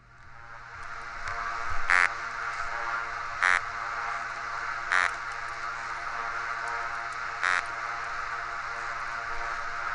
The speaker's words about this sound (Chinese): 我们先来听一段声音，这个是呢，人讲黄鱼，然后或是叫鳗鱼，它在台湾人讲有钱吃鳗啊，无钱免吃，就是很贵的那种鱼，叫鳗鱼，或是叫黄鱼，这叫石手鱼科的鱼，鱼会唱歌。